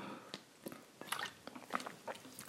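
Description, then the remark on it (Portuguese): Someone quietly drinking water: a run of soft, wet gulps, swallows and mouth clicks at an uneven rhythm, with no talking. “vou só beber água.”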